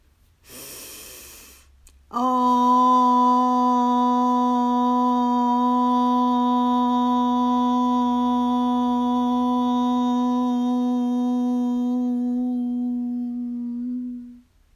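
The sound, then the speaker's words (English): A sharp inhaled breath, then a group of voices, hands on their bodies, sustains one steady, low hummed OM for about twelve seconds, rich in overtones, holding loud and even before fading out together. “We'll breathe in and say OM as long and as loud as we can.”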